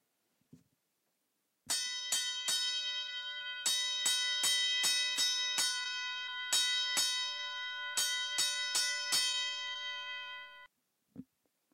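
A fire alarm bell rings loudly for about nine seconds, a bright metallic tone struck in quick clustered bursts with a steady ring sustaining between strikes, then it stops abruptly.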